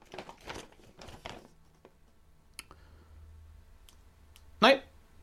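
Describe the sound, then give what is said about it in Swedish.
Pages of a rulebook being flipped through: a few quick papery rustles, then a quieter stretch with small clicks, and one sharp, louder page turn near the end. “För då kan jag bläddra dit.”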